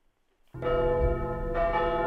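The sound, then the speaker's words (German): Church bells burst in after a brief silence, ringing loud with rich, sustained harmonic overtones that keep swelling as new strikes layer over the resonance. “Die Kirchenglocken.”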